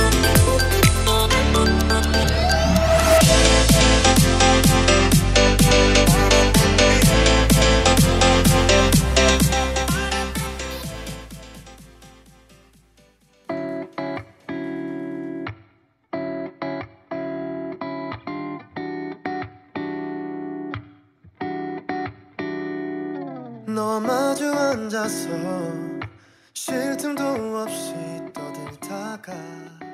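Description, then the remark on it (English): A newly released K-pop song plays: a dense, bass-heavy full arrangement for about thirteen seconds fades down, then gives way to choppy stop-start bursts of music broken by brief silent gaps. “You just heard the newest track from a good friend of the show.”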